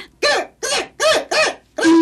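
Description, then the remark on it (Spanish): Five harsh, nasal bird calls like a magpie's, evenly spaced and loud, each rising then falling in pitch, with brief silences between them and no voices. “¿Y la urraca?”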